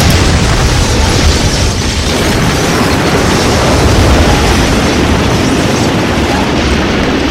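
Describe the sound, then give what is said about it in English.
A continuous barrage of heavy explosions as a volley of missiles fired by Darius slams into the Master of Sorrow and his forces, dense overlapping booms and bursts roaring loudly without pause, with rumbling low end and crackling debris throughout. “They slam into the Master of Sorrow and his forces, unleashing explosive fury.”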